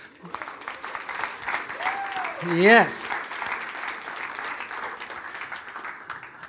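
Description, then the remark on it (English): A church audience on a Sunday morning breaks into a sustained round of applause for the sign language team, a steady wash of many hands clapping, with a voice briefly rising above it partway through. “Will you guys just give them a round of applause?”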